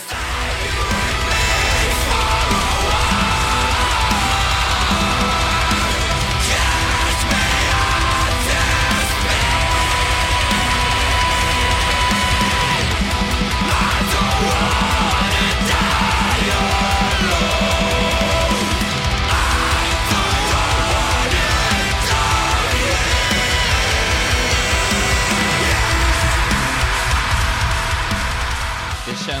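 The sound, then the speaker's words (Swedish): A loud, dense metalcore track by a metalcore band from Gothenburg, Sweden, released 27 August, plays continuously, with heavily distorted guitars, pounding drums and a steady driving rhythm filling the full range throughout. “Fantastisk låt som balanserar på metalcore-linan på gränsen till tyngre genrer.”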